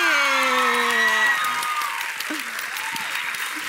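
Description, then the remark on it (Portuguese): A TV show audience claps steadily in a dense, sustained round of applause for actor Gabriel Leone, with a loud tonal cheer or whoop over the opening second before the clapping continues a bit softer. “Bom, uma salva de palmas para Gabriel Leone!”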